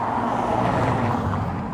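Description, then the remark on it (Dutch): A car drives fast through a residential neighbourhood, a loud, steady rush of engine and tire noise filling the short moment with no voices. “En sommige auto's rijden ook echt zo hard.”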